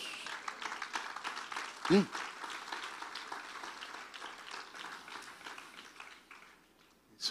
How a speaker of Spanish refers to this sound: Le podemos dar un fuerte aplauso a Dios.